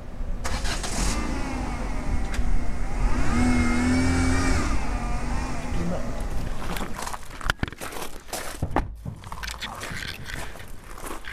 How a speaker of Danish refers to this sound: Vi er i bil.